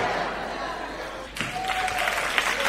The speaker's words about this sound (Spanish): Dele ese aplauso al Rey de Reyes y Señor de Señores. A su nombre.